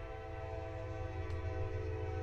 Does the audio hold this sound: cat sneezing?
no